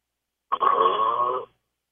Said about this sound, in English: I don't know that it's snoring, it's just like he's breathing in a heavy way